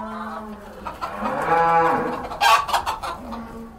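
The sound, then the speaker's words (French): Chickens cluck and squawk in a busy farmyard, several fairly loud calls over a few seconds, with other farm animals lowing faintly in the background. No one speaks. “Il faut faire venir de France des bœufs, des porcs, des moutons, des poules et même des chevaux.”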